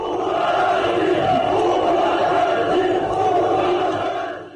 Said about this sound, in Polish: Prezydent Łukaszenka odwiedza jedną ze strajkujących fabryk. Prezydent nie jest w stanie uspokoić tłumu. Robotnicy krzyczą: odejdź.